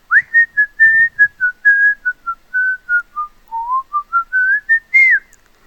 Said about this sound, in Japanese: ねんもう一パターンある。じゃあもう一パターンも聞いてみようか。せっかくだからね。はい。じゃあもう一パターンのジングルもお願いします。